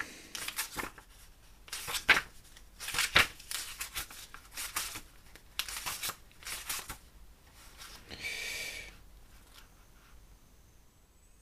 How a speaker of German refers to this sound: ich muss mal kurz hier in meinem Büchlein blättern.